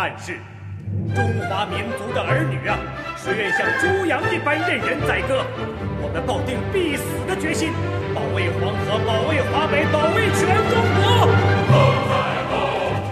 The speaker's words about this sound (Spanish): La que estamos escuchando es el séptimo movimiento Defensa de Río Amarillo de la cantata de Río Amarillo, con letra de Wei Ran y composición de Shen Xinghai.